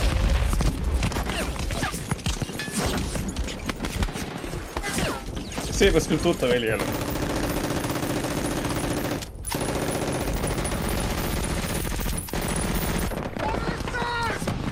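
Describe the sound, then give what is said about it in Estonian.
Dense, sustained bursts of machine gun fire crackle through a chaotic battle in the opening scene of a war film, with booms and clatter layered in, loud and continuous, while a voice speaks briefly over it. “Saving Private Ryan alguse oh,. kõige legendaarsem ma... stseen filmi ajaloos.”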